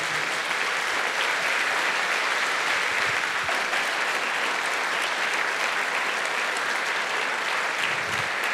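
An audience breaks into sustained, loud applause for the Lord, a dense wash of many hands clapping steadily for several seconds without letting up, with no voices standing out above it.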